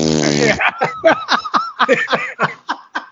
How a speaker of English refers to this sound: I didn't hear a half a thing you said once the fart noise happened.